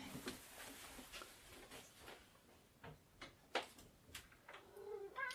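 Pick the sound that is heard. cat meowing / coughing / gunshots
cat meowing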